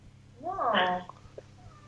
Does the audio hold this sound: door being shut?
no